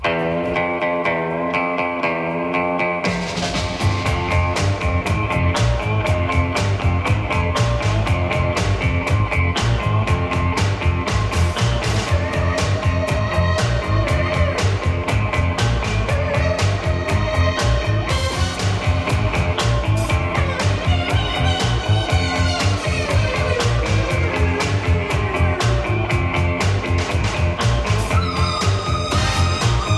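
A synthesizer instrumental cover of a classic TV theme: a few seconds of sustained, wavering synth tones, then a loud, driving beat with buzzy, distorted synth lines and echoing effects continuing steadily.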